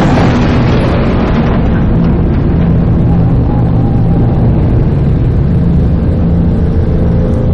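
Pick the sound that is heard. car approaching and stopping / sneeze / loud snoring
car approaching and stopping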